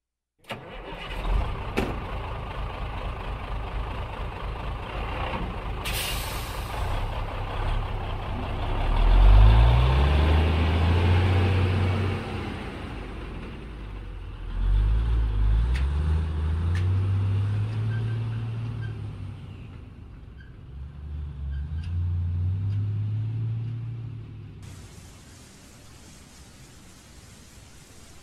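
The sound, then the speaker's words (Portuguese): A truck engine cranks and starts, a short burst of air brake hiss follows, then the engine revs up through three rising gear pulls, loud, before settling to a low rumble. “Júlio, sem se questionar, pega a chave do caminhão e atravessa a porta do apartamento”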